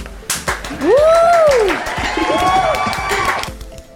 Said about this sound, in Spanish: Gracias, gracias. Aplausos para ella.